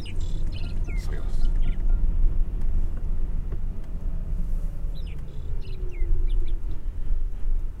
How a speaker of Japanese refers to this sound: えー、ちょっと外部マイクを車のサンバイザーにつけてみたんですけど変わらないですかね、えー、やっとマイクが届いてんですが鳥の声のがでかいかもしれませんね